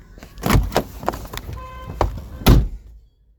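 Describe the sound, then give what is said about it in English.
A door is handled at night: a few heavy thuds and knocks, a short squeaky creak in the middle, then a final solid thump before it goes quiet. No one speaks. “Go and get the door, Harold.”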